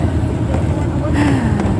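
A steady, loud low rumble inside an old, mostly empty bus driving straight along a rough country road in southern Laos, heading north toward Pakse at about 7 in the morning. A continuous engine drone and rattly road noise fill the whole stretch.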